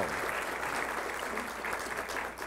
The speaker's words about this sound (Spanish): Dele un aplauso al Rey de Reyes y Señor de Señores Jesucristo.